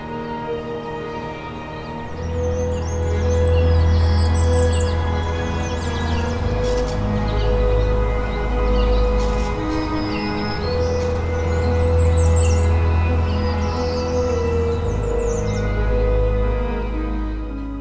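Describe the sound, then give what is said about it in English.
Migrant warblers and resident breeding birds sing and chirp in bursts of quick, high trills, moderately loud, on a morning in the Woodland Cemetery in Burlington, Ontario, along the shore of Hamilton Harbor, layered over a steady low rumble and sustained tones that run through the whole scene. “Migrant warblers and resident breeding birds here are filling the air with song.”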